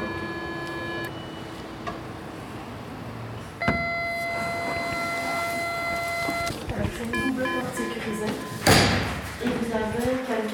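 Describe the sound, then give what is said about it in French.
After a steady electronic buzzing tone, staff open the entrance door to a consumption room with a thump, followed by another clunk and busy murmuring voices. “Donc on reconnaît les gens et à ce moment-là, ben, on ouvre la porte sans aucun problème.”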